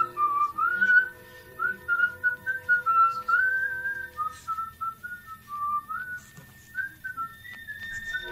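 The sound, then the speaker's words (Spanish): A man whistles a lilting song while walking happily to the slaughterhouse around four at dawn, the melody rising and falling in connected phrases for several seconds, with a faint low background hum and no talking. “Iba contento, hasta iba chiflando una canción.”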